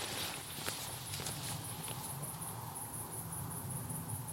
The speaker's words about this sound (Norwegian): Det er så skönt å vandre på natten når det bare er helt stille. det enda ljudet man hører, det er syrsorna og ens egne steg. Alle biler er borte. Alle mennesker har gått og lagt seg.